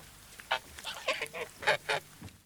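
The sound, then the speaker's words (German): A pet bird calls out in a quick series of about seven or eight nasal, honking cries, moderately loud, with no talking over them. “das war ein lieber Vogel.”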